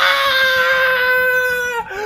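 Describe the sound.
A voice imitates an agonized scream: one sustained, strained, high-pitched wail held loudly for about two seconds before breaking off, sounding like anguished crying.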